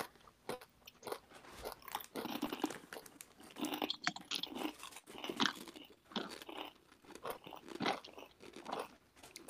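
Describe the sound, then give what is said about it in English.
Loud crunching of a kettle chip, with a steady run of sharp, crackly bites and chewing that continues for several seconds, no talking. “lean close to whatever device you're using as you uh, bite into that kettle chip a, a ton of loud chip noises this is this is like the anti asmr i guess”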